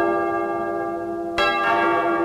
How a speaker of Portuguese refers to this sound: Vamos lá! Toca o sino, sacristão!